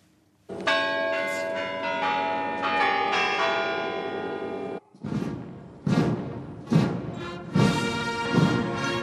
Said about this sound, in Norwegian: Klokken i Frelsestårnet i Kreml var slagen for den 67. markeringen av seieren i 1945 her i Moskva.